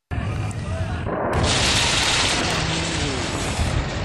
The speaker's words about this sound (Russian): Ну, сначала в небе виден силуэт самолета, потом а, слышен и виден взрыв. А, авторы съемки находятся достаточно далеко от а, клубов дыма, но они спешат в район, откуда поднимается этот столб дыма.